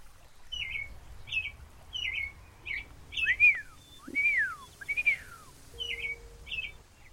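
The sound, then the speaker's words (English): A small bird chirps in a steady series of short, bright notes, broken midway by three louder, sweeping whistled calls, over a faint low background rumble. “Do you like me, little bird?”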